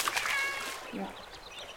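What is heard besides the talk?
cat meowing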